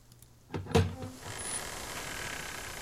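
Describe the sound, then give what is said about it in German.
A door swings open with a short creak and a solid clunk, followed by a steady low hiss of ambience. It's moderately loud, with no voices. “Und dann geht die Tür auf.”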